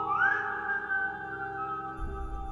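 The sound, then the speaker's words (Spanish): A single eerie, ghostly whistle that glides upward and then holds a long, steady high note, with a low rumble rising underneath near the end and no voices. “Dicen que su silbido tan característico anuncia su presencia cuando se escucha cerca, el silbón está lejos.”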